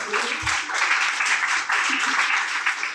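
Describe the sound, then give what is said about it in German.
A short burst of steady applause, dense hand claps blending into a continuous crackling wash that stays fairly loud for about three seconds, with no voices rising above it. “Einmal Applaus bitte.”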